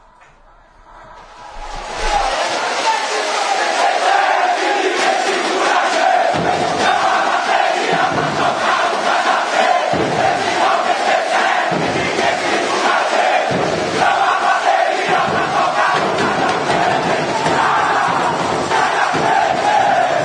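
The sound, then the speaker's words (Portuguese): A massive stadium crowd of organized Vitória football supporters from Bahia, Brazil, chants in unison, loud and sustained, with a steady rhythmic pulse after the sound swells in during the first couple of seconds. “de 97, então, a Tui canta”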